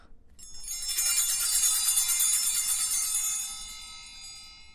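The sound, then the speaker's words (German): A cluster of small altar bells rings out together in a bright, shimmering jingle as the bread is held up during communion, sustained for a few seconds before the ringing slowly fades away. No voices are heard. “Und dann, wenn das Brot hochgehalten wird, dann klingeln wir einmal.”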